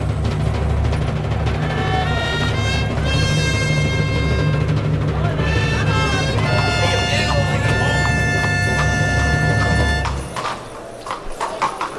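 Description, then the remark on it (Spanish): Horse hooves galloping across a bullring floor in a quick, steady rhythm, loud, during a mounted bullfight as Diego Ventura changes horses, with a man's voice talking over them before the hoofbeats fade near the end. “Cambia la, cabalgada.”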